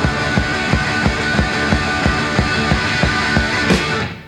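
A punk rock band plays live, loud and dense, with a steady pounding drumbeat about three hits per second under a wall of distorted guitar, ending with a crash.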